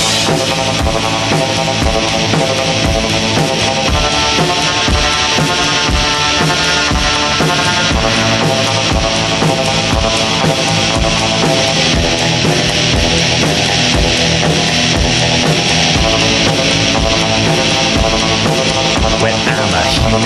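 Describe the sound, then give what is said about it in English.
A loud, raw punk rock song blasts steadily, with dense distorted guitars and driving drums filling the whole stretch at full volume without letting up. “so we're going to get into some punk rock.”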